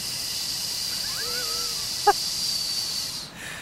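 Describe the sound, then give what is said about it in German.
A voice imitates ocean surf with a steady, breathy hiss held for several seconds, fairly soft, with a faint whistling edge and one small click partway through. “Können wir hier so Meeresrauschen einspielen?”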